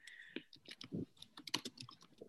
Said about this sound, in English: oh God, I'm gonna, let me just type a little message.